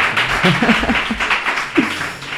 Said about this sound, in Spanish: Uh, bien. aplauso más natural.